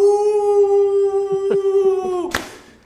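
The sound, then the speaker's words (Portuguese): A person imitates a wolf howl with one long, steady, sustained tone that ends abruptly in a short burst of noise, with faint murmuring underneath. “Faz o uivo da loba aí, galera.”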